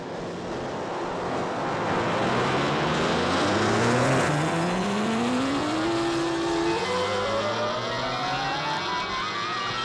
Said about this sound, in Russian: Сколько автомобилей? Куда они все мчатся?